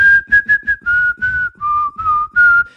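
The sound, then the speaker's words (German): Someone whistles a TV series theme tune up close: a quick run of short, clear notes followed by longer held ones, bright and fairly loud, with no talking. “Ihr wisst schon diesen Theme-Song von Gossip Girl”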